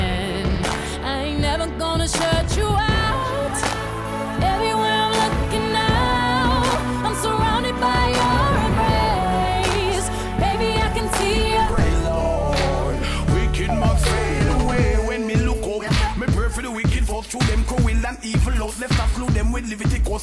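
A loud dancehall cover song plays throughout, with a steady punchy beat under dense layered melody; the last few seconds thin out to sharper, more staccato rhythmic hits.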